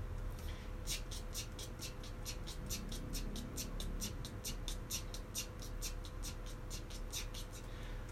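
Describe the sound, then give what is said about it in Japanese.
Soft, rapid hand taps on a mini cajon in a steady, even stream of sixteenth notes (a 16-beat rhythm), played as quietly as possible, with no voices over them. “ミニカホンを叩いてみた”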